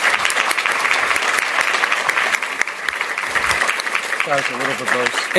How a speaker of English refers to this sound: our panelists, thank you so much. Please join me in giving them another round of applause.